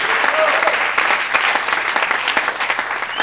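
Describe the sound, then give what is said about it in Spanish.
An audience at an evening church service breaks into sustained applause for the Lord, many hands clapping in a dense, steady patter that stays loud and even for about three seconds, with faint voices mixed in. “Dámosle un buen aplauso al Señor esta noche.”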